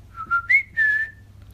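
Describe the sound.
A short family signal whistle, used to call children in a supermarket: three rising, tonal notes, the last one held and gliding down slightly, clear with no talking.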